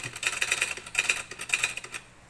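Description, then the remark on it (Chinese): Rapid typewriter typing: a dense run of sharp, bright clacking keystrokes in quick, slightly uneven bursts, fairly quiet and with no voices, fading out at the end. “他们又疯狂打字。”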